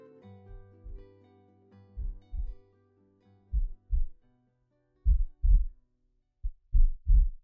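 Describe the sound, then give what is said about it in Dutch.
A heart beating in slow, steady lub-dub pairs, deep muffled thumps growing clearer over about five double beats, with a faint low hum underneath at the start; part of an art installation in an anatomical theatre. “Dat is het kloppen van een hart.”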